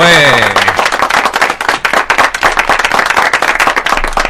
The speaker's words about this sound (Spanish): Ah, un aplausito ahí